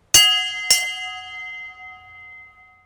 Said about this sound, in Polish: Niedzielny dzwon.